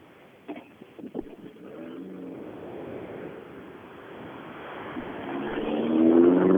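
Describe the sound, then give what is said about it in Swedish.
Two rally cars come by in a row, engine building from a low rumble into a louder, rising droning whine by the end, over steady rushing noise, with a few sharp knocks early on. “Men då kommer det faktiskt två bilar här på rad.”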